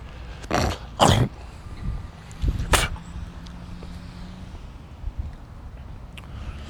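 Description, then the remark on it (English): A man clears his throat: two quick rough rasps, then a sharper third burst a moment later, followed by quiet background noise and no speech. “Hey, don't fixate on me clearing my throat.”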